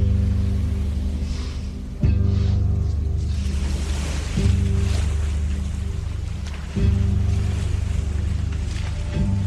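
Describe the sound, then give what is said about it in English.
Sea waves wash in at the shoreline, surging roughly every two seconds over a steady low rumble, with a broad hiss of spray between surges. No voices. “What drew them to the water's edge?”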